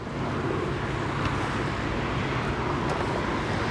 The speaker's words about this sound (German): Es ist jetzt extrem beängstigend, hier im Verkehr zu sein und unzählige Geräusche wahrzunehmen, aber die nicht einschätzen können. Ich weiß jetzt nicht, welche Richtung dass ich überhaupt muss. Ich habe jetzt null Anhaltspunkte, wo was durchgeht.